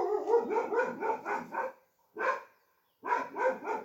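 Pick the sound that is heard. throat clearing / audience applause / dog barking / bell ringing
dog barking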